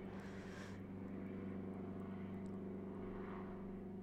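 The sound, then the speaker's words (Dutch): A steady low mechanical drone of a helicopter passing overhead, heard through an open window on a very warm day, fills the background with a constant rumbling hum and no speech. “En een helikopter.”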